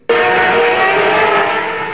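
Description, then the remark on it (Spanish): A diesel car engine abruptly kicks into life and roars loudly and steadily for about two seconds, with no voices over it. “¿Y arranca o no arranca? Siempre arranca con Bujía Gescher para motores diésel.”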